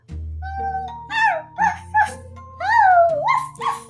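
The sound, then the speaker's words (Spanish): A distant jackal pack howls in overlapping, wavering cries with short yips, the voices rising and sliding down in pitch over a low steady hum, a few seconds long. “En una ocasión, los animales se hallaban reunidos escuchando nuevas instrucciones cuando se oyeron los aullidos lejanos de una manada de chacales.”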